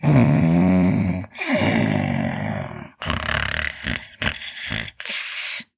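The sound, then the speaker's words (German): A voice imitates loud, heavy snoring: two long rasping, rumbling snores followed by a series of shorter puffing, blowing breaths, forceful with no talking. “Es dauert auch nicht lange, so war er laut blasend und schnarchend eingeschlummert.”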